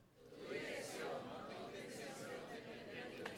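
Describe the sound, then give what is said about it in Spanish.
A large audience speaks together in unison, a dense, steady wash of many voices reciting the Spanish phrase "Tu dirección, no tu intención, determina tu destino" for a few seconds, fairly loud, with the screen showing the phrase turned black. “Y lo van a decir solo ustedes.”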